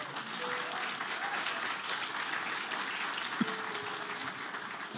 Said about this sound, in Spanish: Así que, eh, ¿qué tal si le damos un aplauso a Dios por sus pastores?